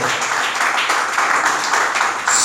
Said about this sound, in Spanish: Denle un aplauso al Señor, por favor, esta mañana. Déselo a Él ese aplauso, por favor.